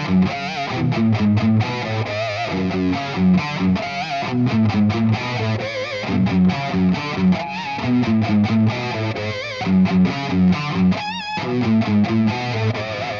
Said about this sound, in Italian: Ecco, gli armonici artificiali sono proprio quelli che hai sentito fischiare, ok, al posto della tua normale, senti più un fischio, ok?